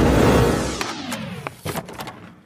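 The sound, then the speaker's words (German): The door of a hotel suite, the Sweet Casanova, on the suite floor swings open with a rushing, low rumble that fades, followed by a few sharp clicks and light rattles. No one speaks. “Die Tür ist aufgegangen und ja, man merkt schon gleich, es ist definitiv größer”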